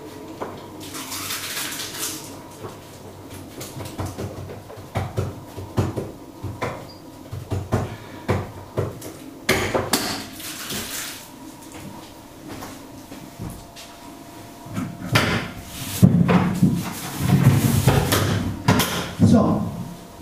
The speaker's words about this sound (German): So sieht mein Morgen aus. Tee wird gemacht, Kaffee wird gemacht.